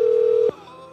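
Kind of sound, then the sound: signal or alarm, telephone ringing tone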